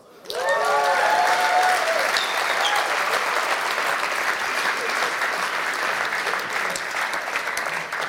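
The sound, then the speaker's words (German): An audience breaks into loud, sustained applause that fills the whole stretch, steady dense clapping with a few brief whoops or cheers near the start. “Zuerst mal einen riesen Applaus.”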